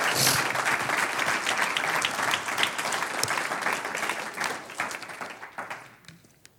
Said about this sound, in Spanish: Vamos a darle un aplauso al que vive.